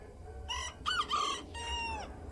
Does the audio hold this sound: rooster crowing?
yes